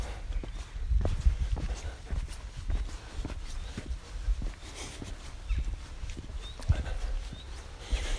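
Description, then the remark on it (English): Footsteps crunch along a country path past a small field in an unhurried, steady rhythm, fairly clear, with a soft outdoor background and no one talking. “walking past a small field, some cattle.”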